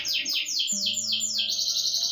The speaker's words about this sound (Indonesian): Burung pun berkicau seolah memberikan semangat